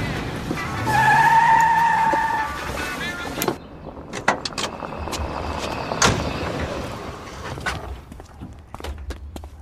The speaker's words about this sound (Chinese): 怎么会有喇叭声？哦，上帝，后面有一辆车！